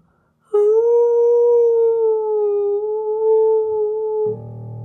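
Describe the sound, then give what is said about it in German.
A wolf lets out one long, steady howl, loud, holding a single pitch for several seconds before breaking off into a brief low rumble. “Und vor lauter Enttäuschung und Hunger fing er an zu jaulen.”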